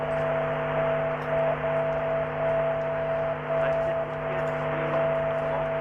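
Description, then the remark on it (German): A steady Morse code tone, keyed on and off in long dashes with short gaps, sounds through constant radio static: the identifier of a VOR navigation beacon transmitter, received on a radio. “Also im Morsecode ist es die Kennung des Senders und es wird zusätzlich auch noch irgendwie die Himmelsrichtung des Empfängers gegenüber des Senders angegeben.”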